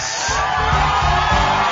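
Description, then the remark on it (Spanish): A crowd applauds and cheers for fathers, a dense, steady wash of clapping mixed with whoops and shouts that stays loud and unbroken throughout. “Así que un saludo y unos aplausos, por favor, para nuestros padres.”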